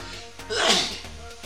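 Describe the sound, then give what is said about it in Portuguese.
A single sneeze bursts out sharply, a quick breathy blast that rises and fades within about half a second, with a faint background hum around it. “Saúde.”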